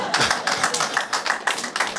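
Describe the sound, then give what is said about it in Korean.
Applause from a group, a dense, steady patter of many hands clapping with slight surges in rhythm, fairly loud and continuous throughout. “박수 마저 치세요.”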